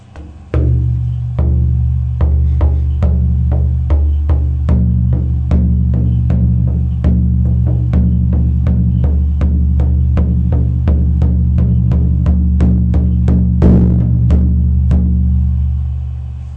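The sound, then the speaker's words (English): A hand drum made with New Zealand red deer skin is struck in a steady, fairly quick beat, each hit giving a sharp attack over a deep, booming resonance that keeps ringing between strokes; no voices. “The ones we make here use red, red deer, New Zealand red deer skins, which sound like this.”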